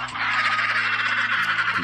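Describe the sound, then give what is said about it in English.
A loud, continuous chorus of penguins squawking indoors in a cold, air-conditioned room, harsh overlapping honks blending into a constant bird racket over a low steady hum, with no talking. “I cranked up the air conditioning in here for my penguin friends. I didn't say they could have a party, though.”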